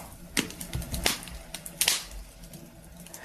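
A wood fire crackles, with a few sharp, irregular pops standing out over a soft, steady hiss and a low rumble. No one speaks.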